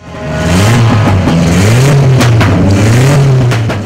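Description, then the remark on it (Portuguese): A loud competition car engine revs hard and continuously on the Potenza racetrack in Minas Gerais, its pitch rising and falling as it climbs through the gears, with no talking. “Por enquanto, o autódromo Potenza está sendo utilizado para track days e também por equipes para testar carros e motos de competição.”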